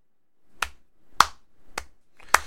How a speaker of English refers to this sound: That gets a slow clap.